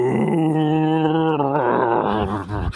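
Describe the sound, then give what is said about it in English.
A human voice imitates an eerie whale call, a sustained wavering moan with rich harmonics that bends and rises in pitch before breaking off, fairly loud with no other talk. “So as you approach this next node, you hear a strange sound from all the whales”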